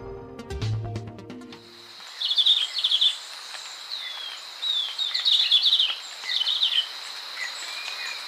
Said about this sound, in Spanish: El verderón castaño que oímos trinar no llega a medir más de 12 centímetros. Tiene la cabeza rojiza y el cuerpo y las alas de color oliva claro. Se puede observar en la serranía de Perijá, en los límites entre Colombia y Venezuela.